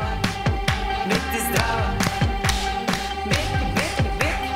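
Hands clap along to Serbia's song in a steady rhythm, sharp bright claps landing on each beat, about a dozen in a few seconds, over sustained tones and a booming pulse, with no talking.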